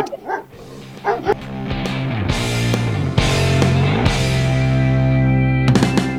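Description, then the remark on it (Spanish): Several dogs bark and yip over a sustained tonal music bed, the barks coming in bursts near the start and end, fairly loud; dogs in a house with 75 dogs, running around a radio broadcast console. “Ya se quiere ir a comer torta frita ahí con los perros, que tienen 75 perros en la casa y le dan vuelta alrededor de la consola de transmisión.”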